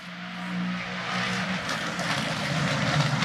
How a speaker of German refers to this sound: Podcast garniert mit ja, rennenfahrenden ja. GT3-Autos.